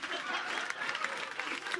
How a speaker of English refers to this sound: Why are you clapping? You want me out of here? I guess so.